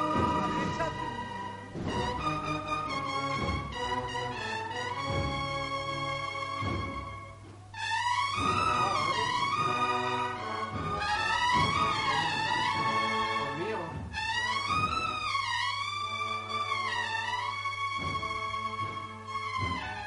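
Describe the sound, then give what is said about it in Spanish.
Cornets play a slow, mournful Holy Week procession melody at La Campana, starting with short, clipped phrases and then swelling into long, wavering notes. The playing stays loud throughout over a steady low drone. “Aquí están llorando las cornetas en la campana.”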